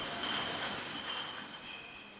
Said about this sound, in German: Also wir sind jetzt in der Flaschenabfüllung. Hier füllen wir so ungefähr 5000 Flaschen pro Stunde ab.